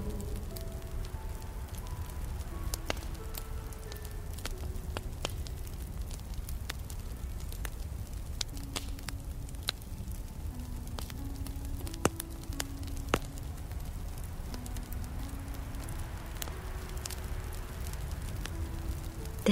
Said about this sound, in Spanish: al final de este camino y encuentras una gran hoguera rodeada con piedras. Es el gran fuego sagrado de Yule.